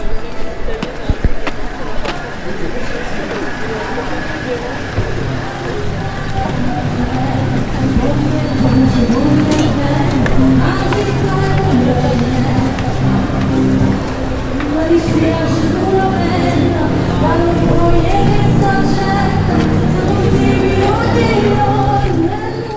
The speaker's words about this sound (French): Dans Naples, la musique est partout. On déambule dans les rues, et il y a de l'accordéon, puis des voix latines, un orchestre de klaxons, de scooters, le bazar et de la pop qui hurle Piazza Bellini.